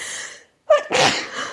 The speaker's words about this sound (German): oh sorry, meine Nase kribbelt, ich muss niesen.